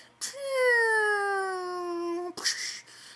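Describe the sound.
A voice imitates a video game missile barrage falling: one long, slowly descending whistle lasting about two seconds, ending in an abrupt breathy burst like a mouthed explosion.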